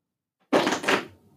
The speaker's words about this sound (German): So, dann mache ich mal meine 16 auf vom Laschkalender.